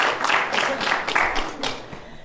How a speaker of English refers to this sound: He has received multiple Pushcart Prize nominations and won the 2012 Pratt Library Little Patuxent Review Poetry Prize. Yeah, um, yeah clap for that.